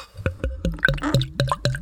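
Beer glugging out of a bottle as it's poured, a quick rhythmic run of about six hollow gulps, each sliding down in pitch, moderately loud with no voices.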